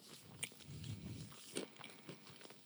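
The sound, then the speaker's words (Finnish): Crisp bites and crunchy chewing of a small snack: a Sunsweet dried prune slit with a knife and stuffed with a pecan or walnut half, on a skewer, with sharp crunch bursts over soft, wet mastication and no talking. “Miira on tehnyt meille mun idean pohjalta tällaisen ihanan pikkusnäksin, jossa on, äh, no maistetaan ensin”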